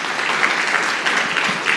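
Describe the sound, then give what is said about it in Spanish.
A church audience applauds the Lord Jesus Christ after a prayer, a dense, even wash of many hands clapping at once with no voices breaking through, holding at a fairly loud level throughout. “Denle un fuerte aplauso al Señor Jesucristo.”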